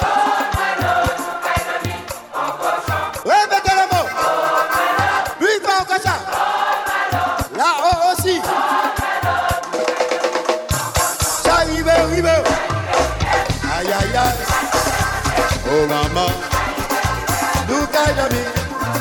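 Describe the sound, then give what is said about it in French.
A large crowd sings loudly in unison after the musicians are turned down, voices blending into a dense, sustained chant that swells midway and continues strongly to the end, with little or no instrumental backing. “Les musiciens baissés, je veux entendre la foule s'il vous plaît.”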